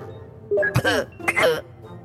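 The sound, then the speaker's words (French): Two short, strained coughing bursts, fairly loud, with a rough voiced quality, as if a voice were imitating a ship's onboard computer coughing and sputtering. “Ordinateur de bord Tu veux nous dire quelque chose Oh, c'est bizarre, gars On dirait qu'il tousse, ton ordinateur Oh, oh, oh, il a attrapé un rhume ou quoi”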